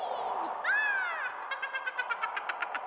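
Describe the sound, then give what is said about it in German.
A cat gives one clear, drawn-out meow, then a quick run of about a dozen short, evenly spaced chirping pulses, moderately loud over a soft background hum. “Miau.”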